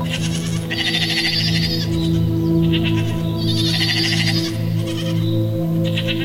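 Goats bleat loudly, several wavering, nasal cries overlapping in a steady run with brief pauses between bursts, and no one speaking.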